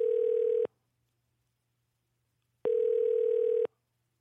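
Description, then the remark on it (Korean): A telephone ringback tone sounds in two steady bursts, each about a second long with a pause of two seconds between, as a radio show calls a listener's phone, which goes unanswered; clear and alone with no voices. “전화 걸어주시기 바랍니다”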